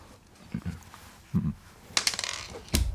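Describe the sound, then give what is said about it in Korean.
A mouth imitation of the character Maeng-gu picking up pebbles: a handful of short, sharp clicks and clattering taps with soft low thumps, spaced out irregularly, fairly quiet, with no talking. “뭣도 아니고 이거 돌멩이를 줍는 소리예요.”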